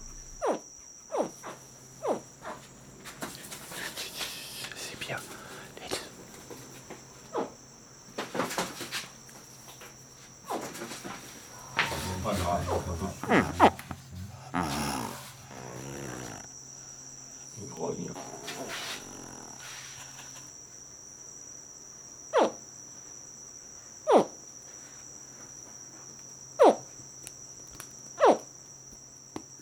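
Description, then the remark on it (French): Captured juvenile crocodiles, held captive in a house and shaken by hand, give a series of short, sharp chirping distress calls at irregular intervals, some louder, over a steady high insect drone and faint rustling. “donc le but c'est d'enregistrer euh, euh, leur cri de détresse, euh, c'est-à-dire le cri qui a été mis lorsqu'ils ont saisi quoi, bah, à la main et secoué.”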